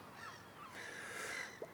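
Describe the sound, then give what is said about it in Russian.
Seagulls give harsh, squawking cries that run together for about a second, fairly faint, with no one speaking. “Чайки и... возмущены. Чайки возмущены.”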